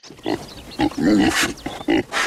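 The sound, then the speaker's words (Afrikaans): A pig grunts and snorts repeatedly, a series of irregular, throaty bursts with one longer rumbling grunt in the middle, fairly loud and with no talking. “Hulle besit 'n koei, 'n vark,”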